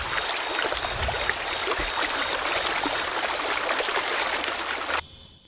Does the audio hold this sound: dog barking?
no